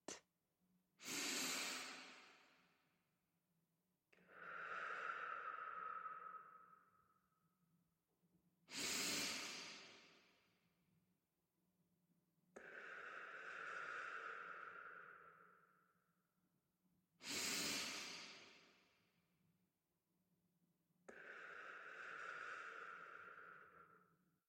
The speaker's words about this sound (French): Prenez quelques grandes inspirations dynamisantes.